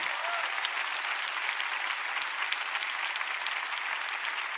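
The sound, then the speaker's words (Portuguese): A church audience, those attending in person, claps steadily for several seconds, a dense, even wash of many hands with no pauses and no voices standing out. “Todos que vieram à igreja fisicamente batam palmas.”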